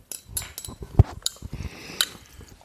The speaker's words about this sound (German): Klimpe. Prost. Klimpe, Klimpe.